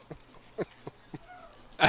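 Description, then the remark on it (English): A few short, gurgling sucks through a straw, then a louder, airy slurp at the end as the last of the water is pulled up. Fairly quiet, with no talking. “You're drinking the last little bit of your water there with a straw sound”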